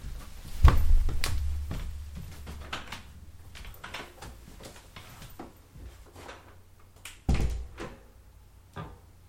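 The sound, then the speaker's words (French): Knocks and rattles of a door being handled, with two heavier low thuds as it swings shut, one early and one near the end; no one speaks. “Bon, après, si tu veux partir, la porte n'est pas fermée. Ouais, bah justement, ça serait peut-être une bonne chose de la fermer.”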